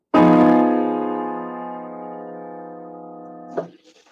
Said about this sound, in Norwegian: Og jeg skal vise deg det som kalles for Tristan-akkorden. Den høres sånn ut.